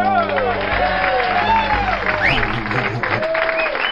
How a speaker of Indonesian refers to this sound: Tepuk tangannya dong.